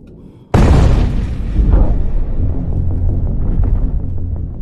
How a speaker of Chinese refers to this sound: 突然，远处传来轰的一声闷响，啊，到窗边一看，马浦大桥真的被炸了。